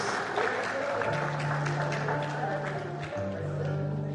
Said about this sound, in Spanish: Fuerte el aplauso para la Escuela Las Corrientes.